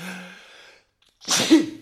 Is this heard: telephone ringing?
no